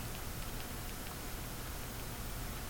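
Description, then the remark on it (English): A phone makes faint, regular clicking from its back next to the camera flash, roughly two clicks per second, over a steady background hiss. No one speaks. “My phone making a weird clicking noise.”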